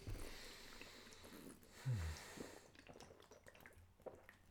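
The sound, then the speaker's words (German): Beer pours with a soft bubbling rush, followed by a few scattered drips and faint splashes as the flow tapers off; no one speaks. “Ja gut, dann trinken wir halt jetzt das Seidler.”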